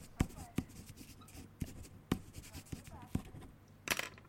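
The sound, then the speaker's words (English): Quiet scratching and tapping of a pen writing on paper, with sharp irregular clicks and strokes, a brief rustle near the end, and faint murmuring in the background. “I'm writing it.”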